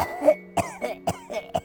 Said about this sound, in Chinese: 咳嗽咳的不行不行，而且大姨是年纪已经很大了，而且她坐着轮椅的